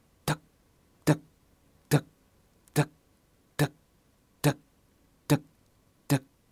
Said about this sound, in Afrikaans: Die sekondes tik af